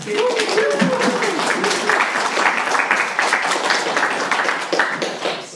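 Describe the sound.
A crowd applauds steadily, dense clapping filling the room for several seconds with a few voices and cheers mixed in near the start.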